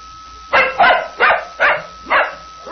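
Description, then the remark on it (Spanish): A hungry dog barks repeatedly, about five sharp, loud barks in quick succession with short pauses between them, with no talking over them. “Voy a darle su comida al perro que está con hambre.”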